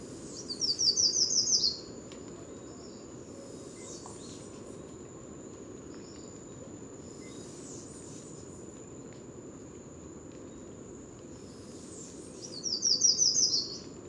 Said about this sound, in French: en arrière-plan bah, la mer au loin, mais aussi un tapis de grillons